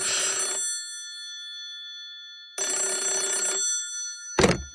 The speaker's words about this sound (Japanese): それはねあれ電話だよ